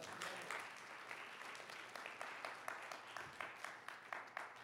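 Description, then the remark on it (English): A crowd applauds steadily, many hands clapping in a dense, continuous patter at moderate loudness, with faint voices mixed underneath. “Clap your hand for that.”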